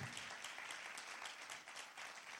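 An audience applauds the Lord, many hands clapping steadily in a dense, continuous patter. A few sharper claps rise above the wash. The applause holds at an even level throughout.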